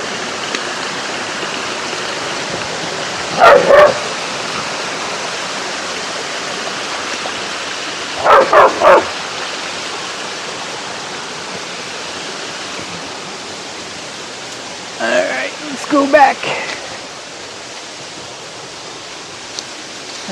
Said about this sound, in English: What a nice little waterfall.